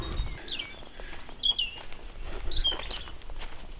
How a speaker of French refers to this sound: Salut petit oiseau.